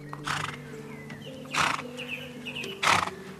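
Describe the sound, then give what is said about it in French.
An old grey horse being led toward a road snorts and blows three times at roughly even intervals, moderately loud, with low rumbling whinny-like tones sustained underneath between the bursts. “Comme s'il avait compris, le cheval se retourna et les regarda de ses gros yeux rougis par l'âge.”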